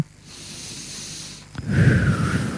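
A person takes a slow, audible breath in as part of a guided breathing exercise, followed by a fuller, louder exhale with a slight rasp, with no talking over it.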